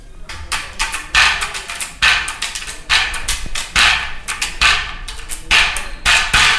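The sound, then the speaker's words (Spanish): A donkey jawbone, cleaned and dried after the donkey died, is played as a percussion instrument, struck over and over in a quick, steady rhythm, each hit giving a loud, dry rattling buzz as the loose teeth chatter, with no voices. “Y, eh, y ellos lo utilizan como percusión. Escucha.”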